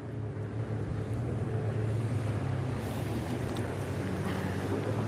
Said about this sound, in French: Ah, si, il y a une péniche, tu vois.